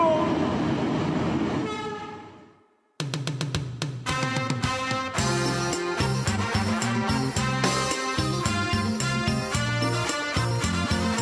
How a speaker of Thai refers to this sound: รถไฟลาวจีนมาแล้วเด้อ